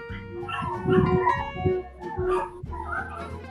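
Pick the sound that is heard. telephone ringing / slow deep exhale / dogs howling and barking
dogs howling and barking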